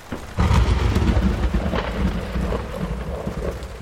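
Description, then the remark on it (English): A sudden, loud clap of thunder breaks in and rolls into a deep, sustained rumble, with steady rain hissing underneath. No voices. “Lightning strikes happen all the time.”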